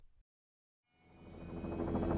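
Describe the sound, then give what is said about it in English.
After a brief silence, a helicopter's engine and rotor blades wind up in the Arctic as two polar bear cubs are left behind, a pulsing mechanical whine and throb that steadily grows louder, with no voices. “The blades of the helicopter start to wind up as I say goodbye to these two cubs.”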